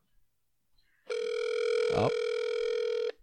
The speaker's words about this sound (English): have the noises for the buttons and and he's able to make it so that you can hear the dial tone over the radio, which we never figure out how to do that.